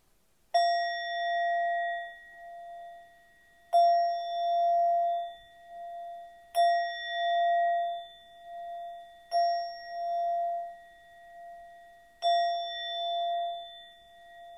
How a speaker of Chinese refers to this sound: 老师现在要敲音波，请把注意力放在你的耳朵上。